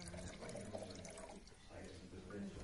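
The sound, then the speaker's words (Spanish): White wine pours steadily into a glass for a few seconds as the owner serves it at the counter of a bar, a soft continuous liquid gurgle, with a faint murmur of voices in the background. “De pie en la barra, el dueño, eligió le sirve vino blanco.”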